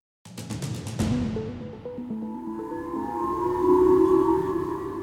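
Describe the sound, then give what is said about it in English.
Emergency warning sirens wail across Hokkaido in northern Japan, a take-cover warning to residents after a North Korean ballistic missile test: long sustained tones that rise and hold over a few seconds, joined by shifting stepped tones after a burst of sharp knocks at the start. “The eerie sound of sirens across Hokkaido in northern Japan.”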